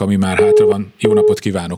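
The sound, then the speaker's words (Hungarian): Two short bursts of a steady, mid-pitched busy tone from a disconnected caller's phone line on a radio call-in show sound beneath a man's continuous talking, each lasting about a third of a second with a brief gap between. “nem, megszakadt.”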